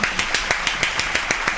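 Brisk applause of steady, evenly spaced claps, about ten sharp slaps in quick rhythm over a constant hissy crowd-like background, with no voices standing out.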